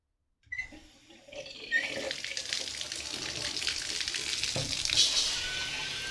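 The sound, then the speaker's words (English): Water sprays steadily from a shower after a brief silence, a continuous hiss that grows a little fuller and keeps running without pause. No voices. “When Alan turned his back to the shower head to rinse the shampoo from his hair”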